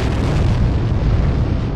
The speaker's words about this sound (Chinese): 震耳欲聋的爆炸声啊，给混沌的世界带来了生命。